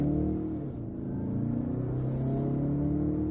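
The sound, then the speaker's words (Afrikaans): A sport utility vehicle's 2.2 turbo diesel engine, producing 140 kW and 450 Nm, hums steadily with a low, heavy rumble. Its tone rises gradually as it accelerates, with no voices. “Dis 'n groot dosis wringkrag en versnelling is moeiteloos en flink.”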